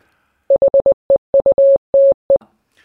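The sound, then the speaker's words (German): A steady, clear tone keys out Morse code for "9-3" in about ten beeps, mostly quick dots with a couple of longer dashes near the end, loud with nothing else around it. “Nee, das war morsisch für heute.”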